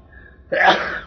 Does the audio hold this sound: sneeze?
yes